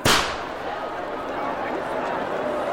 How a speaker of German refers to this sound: Das Wichtigste beim Saxilüte, ein künstlicher Schneemann auf einem Scheiterhaufen, sein Kopf vollgestopft mit Knallkörpern. Wenn die Flammen sich zu ihm hochgefressen haben, bumm, explodiert er.